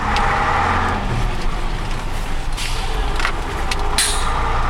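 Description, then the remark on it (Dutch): A heavy truck, the sweeper vehicle driving as the last vehicle of a convoy, rumbles loudly and steadily, broken by several short hissing bursts of air brakes releasing as it pulls away. “Hey, wij, rijden nou in, in de, in de bezemwagen of niet? Hoe heet deze, deze truck?”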